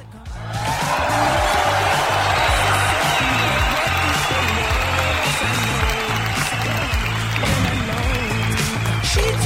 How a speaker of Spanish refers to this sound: Así que fuerte el aplauso público.